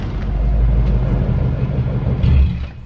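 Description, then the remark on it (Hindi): A car engine rumbles steadily late at night, a low droning hum that swells briefly near the end before easing off and quieting as the car pulls over to the side of the road and stops. “डिम्पी की जिद के सामने संजू को हार माननी पड़ी और उसने गाड़ी साइड लगाई”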